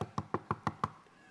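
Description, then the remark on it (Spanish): Six quick, evenly spaced, sharp knocks on a door as Don Saqueo, a tax collector, arrives again and knocks, followed by a short quiet pause with no voices. “Pues don Saqueo se va otra vez y llega y toca la puerta.”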